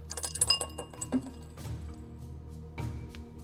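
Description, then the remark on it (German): Dice, including a twelve-sided die, are rolled during a game of 50 Fathoms, clattering and tumbling across a hard surface in a quick burst of small clicks and rattles, settling within a second or two, with faint background noise afterward. “Ich würde tatsächlich auf Geschicklichkeit gehen, weil da ich vielleicht zum ersten Mal in 50 Fathoms ein Zwölferwürfel benutzt wird.”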